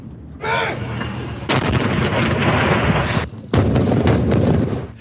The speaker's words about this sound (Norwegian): TV-seerne hjemme i Norge kunne se hvordan en byge fra et automatvåpen slo ned i sanden rett ved siden av meg.